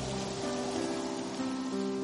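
A sudden strong wind and heavy rain: rain pours down in a steady, dense hiss with a rushing, wind-like roar, while a low sustained hum runs underneath; no voices are heard.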